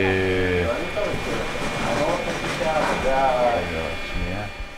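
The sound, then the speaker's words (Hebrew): A wheeled cart in a hospital ward during COVID, a bed carrying a black bag pushed by a nurse, rolls steadily along a hard floor, a continuous rumbling clatter, with faint tonal hums or squeaks at the start and end. “אנחנו שומעים צליל של עגלה.”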